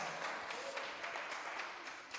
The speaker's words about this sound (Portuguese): Vamos aplaudir Jesus, irmãos, pela vida desses irmãos. Meu Deus, eles nunca mais vão voltar com esses aplausos aí. Aplaude Jesus, querido.